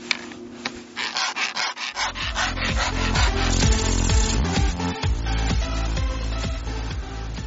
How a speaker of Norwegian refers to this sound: Det er egentlig bare å file i gang for å runde av kantene, slik at du ikke hekter på disse elementene og slår deg helseløs.